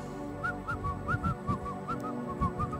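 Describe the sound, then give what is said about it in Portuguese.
Someone whistles a short, lilting tune of about a dozen quick, clear notes, moderately loud, over a low background rumble. “E eles vão, todo mundo chorando, eles são os únicos que dão risada e assobio, né?”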